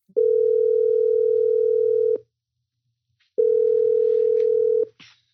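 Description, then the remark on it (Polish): A telephone tone while a call is placed from a studio: two long, steady, mid-pitched beeps, each lasting a couple of seconds, separated by a short silent pause. No one speaks. “Siedzimy sobie w studiu i właśnie do ciebie dzwonimy, porozmawiać, jak wygląda twoje życie”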